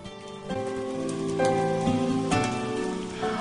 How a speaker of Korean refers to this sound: 어, 빗소리 너무 좋지 않나요?